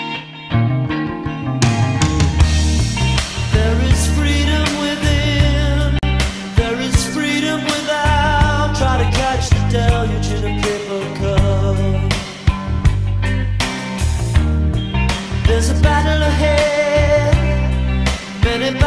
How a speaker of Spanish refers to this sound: es un tema de amor pero creo que lo pueden aplicar perfectamente